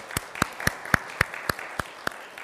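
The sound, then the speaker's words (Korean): A church audience applauds the children steadily, with one set of sharp, evenly spaced claps standing out over a softer bed of clapping from the rest of the audience. No one speaks. “네, 우리 아이들한테 좀 수고했다고 좀박수를 정리해 줄까요?”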